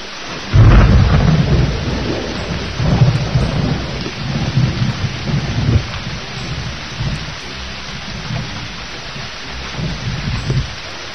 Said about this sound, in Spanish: cruzó el cielo por encima de un enorme desierto azul, atravesando tormentas, aguaceros y vendavales.